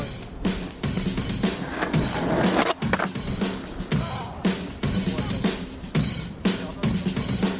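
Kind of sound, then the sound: vehicle, skateboard rolling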